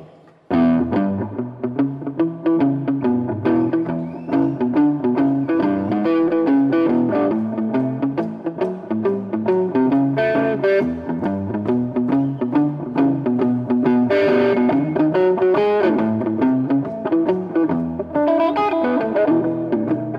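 A cover version of a blues song plays loud and steady, with rough, gritty vocals over distorted guitar and a driving band for the whole stretch.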